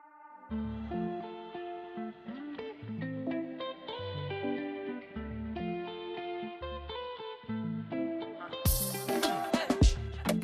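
A song plays with steady beats, a deep bass line and layered melodic tones, building toward a bright, noisy burst near the end. No one speaks over it.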